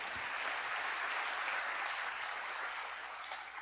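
An audience claps steadily, a dense, even wash of applause that holds at a fairly loud level for several seconds and eases off slightly at the end, with no one speaking.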